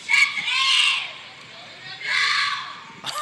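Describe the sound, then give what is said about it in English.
A person lets out two long, piercing, shrill screams, loud, with a short pause between them, imitating the yowl of a bobcat. “Sounds like a bobcat. There's still 30 more seconds left, but like, don't ever scream like that unless you're actually physically a bobcat.”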